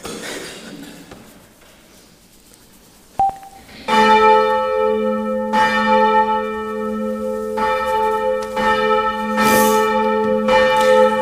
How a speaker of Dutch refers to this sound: De kerkklokken luiden.